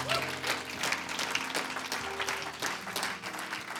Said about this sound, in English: I'm thankful to God today. He's good. Give him a hand clap of praise in this house.